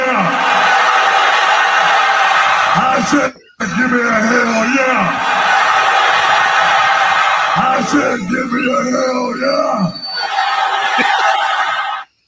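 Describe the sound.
Loud, steady audience applause with cheering, whoops and shouted voices welcoming a guest back, breaking off for a brief moment partway through before continuing at full strength until it stops abruptly.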